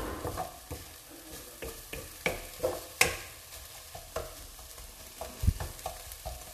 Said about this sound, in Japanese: ちょうど10分まだまだ玉ねぎはきつね色には程遠いですけど一旦火を弱め終わっておきましょう